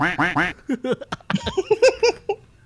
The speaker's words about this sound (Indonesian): nah, itu itu itu suara bebek pertama, itu suara bebek pertama.